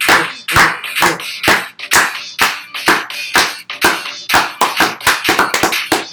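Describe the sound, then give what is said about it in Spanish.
Loud, sharp hand claps repeat quickly and somewhat unevenly for about six seconds, roughly three per second, forming a lively rhythmic clapping with no voices. “Eh, por las palmas, las palmas.”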